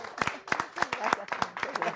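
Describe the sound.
Steady, brisk applause: rapid hand claps in an irregular rhythm, moderately loud, mixed with excited voices calling out and cheering over the clapping throughout.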